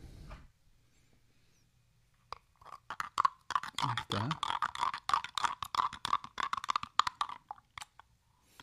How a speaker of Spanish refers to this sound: Vamos a abrir nuestro café y a echarlo a nuestra tacita de agua caliente. Ay, santo Dios, ¿qué pasó? ¿Escucharon? ¡Wow!